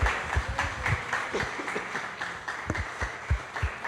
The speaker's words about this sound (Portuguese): Aplauda Jesus.